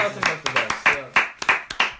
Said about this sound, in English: Yeah, round of applause for that answer. Round of applause for that answer. That was a great answer.